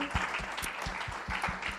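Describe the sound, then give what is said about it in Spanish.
An audience at a sermon claps for Jesus, many hands overlapping into a dense, continuous wash of applause with sharp individual claps popping through at an even, moderately loud level. “así que si usted está despierto, si le puede dar un aplauso a Jesús, porque Él está aquí, yo creo que lo estamos conociendo.”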